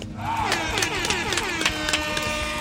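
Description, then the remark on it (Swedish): A burst of applause and cheering from a crowd, loud, with a steady horn toot sounding over the clapping throughout. “Ja, en applåd och en tuta till Jambo.”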